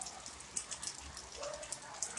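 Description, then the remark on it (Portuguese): Steady rain patters in the background, a soft continuous hiss flecked with faint droplet ticks, quiet, with no voices over it. “Olha o SMR da chuva para vocês aí de fundo, tá?”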